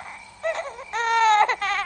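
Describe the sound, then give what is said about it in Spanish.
A hungry baby cries in loud, high-pitched wails, three bursts with the longest in the middle, each rising and straining before breaking off. “Si había algo que Tita no resistía, era ver a alguien llorando de hambre.”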